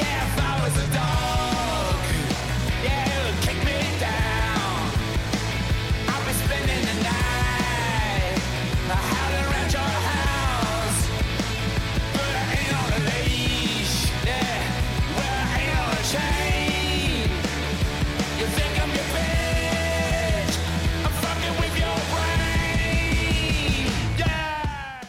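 A loud, dense rock song plays throughout, with a driving bass guitar line underneath, full band instrumentation and a strained, shouting vocal riding on top.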